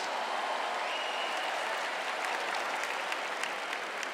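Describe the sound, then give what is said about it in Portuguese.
Steady audience applause, a dense wash of many hands clapping at an even, sustained level for several seconds with no voices over it. “Não, aplaude para ele ouvir, aplaude para ele ouvir.”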